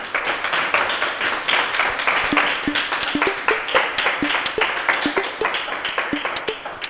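A crowd applauds steadily for a guest, many hands clapping in a dense, continuous patter with sharp individual claps popping out, sustained for several seconds without any talking.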